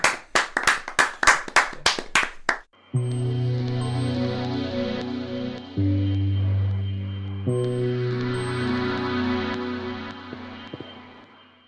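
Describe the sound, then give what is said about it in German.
About eight loud, evenly spaced claps in a steady rhythm, then the clapping stops and sustained music with deep bass tones takes over. “Ein großer Applaus einmal für die Fliegen, bitte.”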